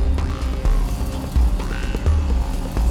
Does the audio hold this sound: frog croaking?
yes